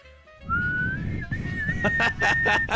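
A thin, shrill flute tone in a video slides gently upward and then holds one high, steady note, with a run of rhythmic, breathy bursts pulsing beneath it toward the end. No one speaks.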